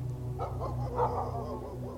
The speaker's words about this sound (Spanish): El lugar estaba invadido por el silencio, solamente se escuchaban algunos perros ladrar.